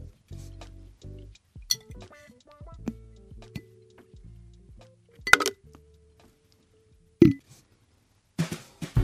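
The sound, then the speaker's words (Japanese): Items drop into a glass jar with a series of bright clinks and taps, some light rattling between them, and a couple of sharper glassy knocks near the end, heard alone with no talking. “ではこちらもガラス瓶に今日も保存したいと思います。”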